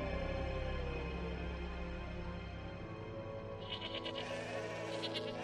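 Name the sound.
sheep bleating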